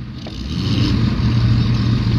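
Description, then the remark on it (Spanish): A car engine rumbles deep, swelling in loudness early on and then holding at a steady, throaty roar with no voices present. “Salen todos carros y no hay señores, porque viene la máquina.”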